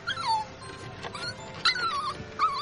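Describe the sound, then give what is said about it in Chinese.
An abandoned puppy of the common Chinese rural dog breed (zhonghua tianyuan quan), found in a box on a Beijing street and later named Xiaobai, whimpers in thin, high-pitched whines, three or four short cries that slide downward in pitch, with faint whimpering between them and no voices. “原来这是一只被人丢弃的小奶狗，是非常普通的中华田园犬。”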